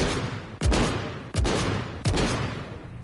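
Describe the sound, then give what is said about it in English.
Three loud, booming gunshots from a video game fire at an even pace about three-quarters of a second apart, each a sharp crack followed by a long, rumbling decay that overlaps the next. “They're trying to shoot us with that...”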